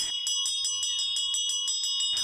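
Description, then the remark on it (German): A small metal bell at a Hindu shrine in the jungle in Sri Lanka, rung rapidly and repeatedly by a man paying homage to the Hindu god: a bright jangling peal with about a dozen quick strikes over two seconds, fairly loud, with no voices. “huldigte dem hinduistischen Gott, obwohl er selbst ein Buddhist ist, klingelte an der Glocke”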